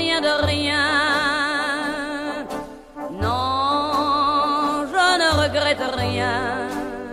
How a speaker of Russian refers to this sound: песня 1960 года, сериал «Эмили в Париже», 687 тысяч стримов, 4 тысячи скачиваний.